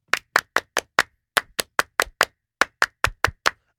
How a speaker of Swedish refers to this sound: Och det är bara att ge en liten fransk applåd till dig. För att jag tycker verkligen att du har förtjänat det. Tack. Un, deux, trois!